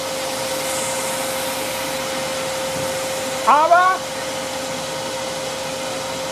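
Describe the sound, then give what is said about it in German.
A loud, steady mechanical blowing roar with a constant whine from an artificial snow machine making it snow in Braunschweig, Germany, continuing unchanged throughout while a voice briefly speaks over it. “Ich kann nämlich es schneien lassen. Achtung, lasst es schneien hier in Braunschweig.”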